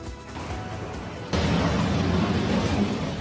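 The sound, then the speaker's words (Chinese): Collapse of an elevated road under construction in Bangkok, Thailand, in the evening; about 500 metres of deck fall to the ground section by section. A steady low rumble suddenly gives way to a loud, heavy crash that keeps roaring with deep, broad, grinding noise to the end, with no talking. “砰的一声巨响，桥面轰然倒下，目击店家和民众不自觉惊声尖叫。”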